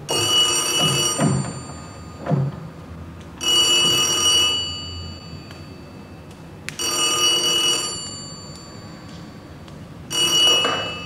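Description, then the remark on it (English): In a film scene, an old-style telephone bell rings as a character gets a phone call, in repeated bursts, each a loud, shimmering metallic trill lasting about a second, separated by pauses of roughly two seconds. No one speaks. “She gets the phone call.”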